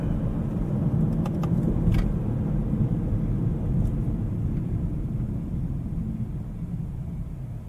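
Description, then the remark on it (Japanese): Steady low rumble of road and engine noise inside a moving car cabin, recorded binaurally while driving, with no car radio or stereo on and the air-conditioning heater fan running at medium; continuous and fairly loud, with a few faint clicks early on and no one speaking. “バイノーラルドライブ録音テスト”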